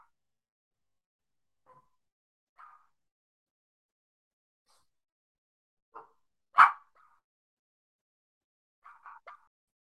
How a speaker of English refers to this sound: I think there was some quiet. Well, not quiet because I had a dog barking. I just paused that because my again eight month old puppy is going a little bit through the witching hour